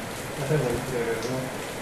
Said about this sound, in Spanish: Ahora sí, por fin llueve, carajo. como se debe, cabrón.